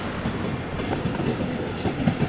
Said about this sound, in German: so, dann haben wir schon Verkehr auf dem S-Bahn-Gleis.